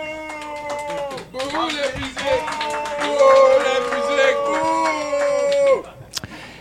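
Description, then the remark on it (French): A stage show audience applauds to answer who listens to music, with loud, high whooping and howling cheers from the crowd, sustained for about six seconds before cutting off abruptly. “Qui écoute de la musique? Par applaudissement, mettons.”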